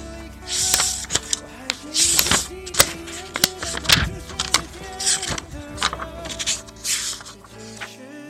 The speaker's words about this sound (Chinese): 我喜欢用手翻书的感觉，喜欢听纸张碰撞的声音。给你听听看，我不知道你能不能听到，